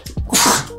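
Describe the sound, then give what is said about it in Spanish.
A single sharp, fairly loud sneeze: a quick indrawn breath followed by a bright, hissing burst that fades out within a second. “salud.”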